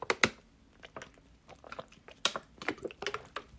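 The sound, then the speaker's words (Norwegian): Someone drinks water: a run of quiet, irregular wet clicks and gulping swallows, with short pauses between them and no talking. “Jeg har ikke tid til å klippe det her bort engang, og jeg må drikke vann.”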